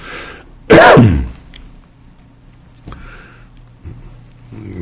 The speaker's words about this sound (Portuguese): tosse pega a gente numa hora que você não consegue evitar, né?